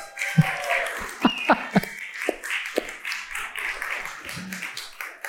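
During a church service, a handful of sparse, sharp hand claps follow congratulations to fathers, five or so scattered at an uneven pace over a few seconds, with a soft murmur of voices underneath.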